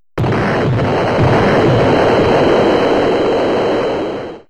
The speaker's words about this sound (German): Das fing an auch mit dem Satz, please turn the volume up, stand auf dem Bildschirm. Mhm. Und danach kam halt eine monströs laute Explosion.